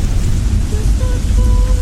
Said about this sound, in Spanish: La lluvia siempre ha sido un momento mágico para mí, desde pequeño.